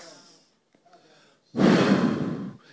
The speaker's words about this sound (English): he did what? He breathed.